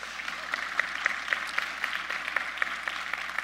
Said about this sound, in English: So give them a big round of applause, real quick.